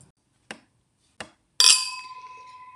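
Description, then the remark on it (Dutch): Glasses clink in a toast to those who have passed away: two light taps, then a louder clink whose bright glassy ring lingers and slowly fades. No one speaks. “Dus proost op alle... Dikke santé.”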